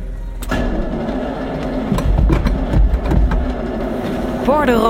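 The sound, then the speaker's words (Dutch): A Ferrari's fuel pump runs with a steady, continuous mechanical hum and low drone after power is switched on, fairly loud, with a brief voice-like sound rising near the end. “Even de benzinepomp laten lopen.”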